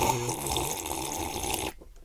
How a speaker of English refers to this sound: Do you reckon this will gross people out? The sound of me gulping down some water.